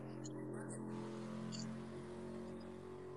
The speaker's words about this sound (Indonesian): ada motor lewat anjir kenceng banget boy.